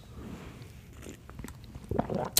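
Mouth noises of someone sipping a little coffee early in the morning in Santana, California: soft wet slurps and a swallow, with a brief sharper click near the end, no talking.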